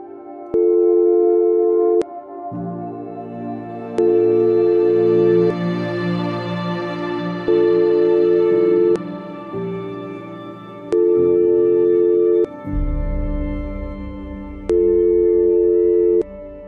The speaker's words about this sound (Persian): اما آنگاه که فریاد تمنای ما بلند شود فقط بوغ ممتد